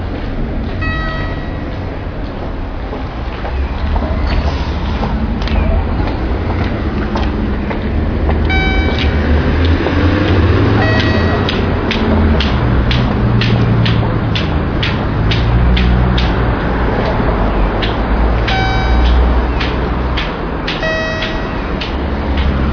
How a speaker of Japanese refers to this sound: このピンポンという音がですねあの何のためにあるかずっと疑問だったんですけども